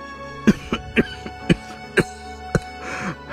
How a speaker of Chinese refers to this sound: 咳嗽着，吐出了大口的血，虚弱的说着